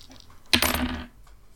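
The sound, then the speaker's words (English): Ice cream dice are rolled for a perception check with advantage and clatter onto a hard tabletop, a sharp impact followed by about half a second of bright rattling as they tumble and settle, then quiet. “Okay, the ice cream dice have come through for me on this one.”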